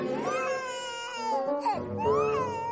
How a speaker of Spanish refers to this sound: te lo suplico, no soporto escuchar llorar a los bebés, me vuelven loco.